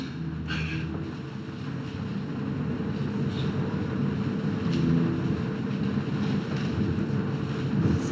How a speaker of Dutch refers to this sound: Zijn ze tafels aan het sjouwen hier.